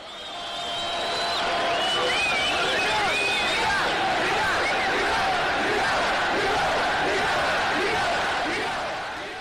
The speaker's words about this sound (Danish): Da tusindvis af tunesere gjorde oprør og råbte gå af til den daværende diktator, som endte med at flygte ud af landet.